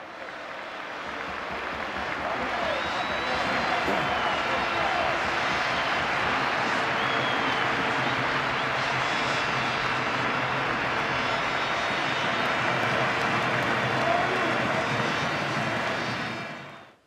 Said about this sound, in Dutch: Het applaus van Santiago Bernabeu, het meest statige stadion misschien wel van heel Europa, voor jullie na die 2-0. Luister even mee.